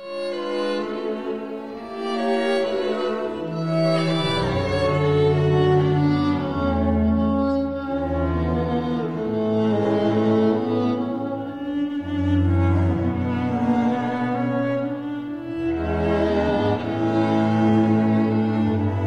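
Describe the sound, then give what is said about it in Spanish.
A classic French chanson, reissued this month, plays on its own at a steady, fairly loud level, with warm sustained melodic lines and a full low end, and no one talking over it. “se se ha reeditado y suena así, mira.”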